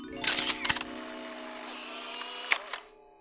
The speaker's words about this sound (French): le président Eusebio retourna son appareil à Polaroid et se prit en photo avec le président au-dessus de lui.